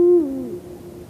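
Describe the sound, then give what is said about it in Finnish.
A Eurasian eagle-owl at Luhtlampi gives a single deep hoot, loud at first, then sliding slightly lower and fading out over about a second, with no talking. “Ja niin kuin arvaatte, niin tämähän on Luhtlamme huuhkaja, mitä kuunnellaan.”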